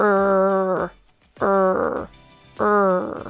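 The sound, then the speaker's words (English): A voice makes three drawn-out, rumbling "rrr" sounds in imitation of a dog growling, demonstrating the sound of the letter R, each loud, separated by short pauses. “It's the sound of dog growling.”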